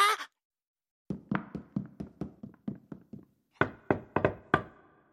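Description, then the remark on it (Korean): Knocking on the door of a large dark mansion at night in an uneven, peculiar rhythm: a quick run of about a dozen raps, a short pause, then a cluster of louder, sharper knocks, with no voices. “그는 문을 향해 서둘러 걸어갔고 역시 기이한 방식으로 노크했다.”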